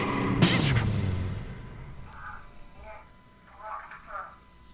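A baby room monitor transmission picked up on a scanner crackles in with a loud burst of static and a falling squeal, then faint, muffled baby cries or murmurs come through a thin, tinny channel over a steady hum.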